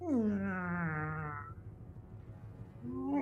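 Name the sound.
door creaking open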